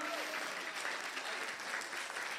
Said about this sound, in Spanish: ¿Cuántos dicen amén? Vamos, despierte, den un aplauso al Señor.